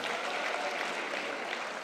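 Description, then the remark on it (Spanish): An audience applauds at a Spanish-language church sermon, at the preacher's call, in a dense, steady wash of many hands clapping together, sustained at an even level throughout with no voices standing out. “Vamos, si tú lo crees, dale ese aplauso fuerte.”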